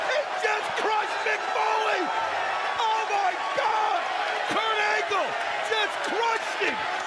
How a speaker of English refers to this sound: sick, a sick chair shot to Foley. Oh, he just crushes Jeff with the chair. First it's Foley, then it's Jarrett with the just brutal shots.